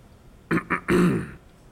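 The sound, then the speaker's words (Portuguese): A judge clears his throat before announcing his decision in the US District Court in Manhattan, June 1980: two quick guttural bursts followed by a longer, rougher rasp, then quiet. No one speaks. “O juiz … pigarreia e anuncia a sua decisão.”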